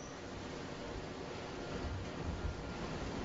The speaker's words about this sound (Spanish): El mar, el Cantábrico, las olas, las rocas, la fuerza